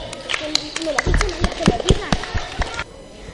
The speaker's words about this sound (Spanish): Pues muchísimas gracias por venir y participar en el cross del colegio. Un aplauso muy fuerte.